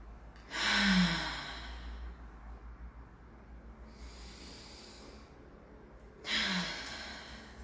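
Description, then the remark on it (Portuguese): Slow, deep conscious breaths during a guided breathing exercise: a long airy inhale or exhale, a quieter breath in the middle, then another full breath a few seconds later, with no talking. “E vamos respirar junto comigo profundamente uma respiração consciente, presente.”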